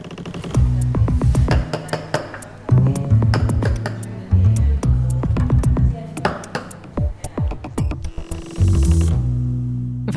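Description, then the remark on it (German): A huge coffeehouse door creaks loudly as it opens or closes, a long groaning, stuttering creak with rapid ticks and shifting low tones that swells and fades in several drawn-out strains. “Das ist so ein lustiger Sound. Ja, der knarzt schön.”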